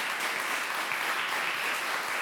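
A crowd applauds steadily, a dense wash of many hands clapping at even loudness throughout, with no voices standing out.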